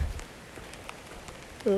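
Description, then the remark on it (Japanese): Soft, steady rain falls continuously on a humid day, pattering in the background, a faint continuous hiss with scattered light drops, before a voice briefly starts up at the very end. “でも今日はジメってしてるなんか雨降ってるんだよなしかもずっとねだからまあ嫌だなっていうのはあるんだけど”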